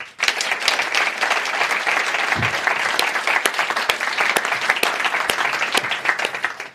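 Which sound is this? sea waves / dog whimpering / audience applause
audience applause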